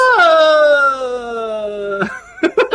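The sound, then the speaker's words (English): A person imitates a game-show buzzer with a loud, sustained nasal vocal drone that slowly sinks in pitch for about two seconds, followed by a few short, choppy vocal bursts. “That was my buzzer noise.”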